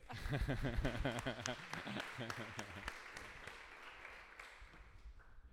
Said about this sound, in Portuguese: muito obrigado e muito boa tarde. Podem aplaudir.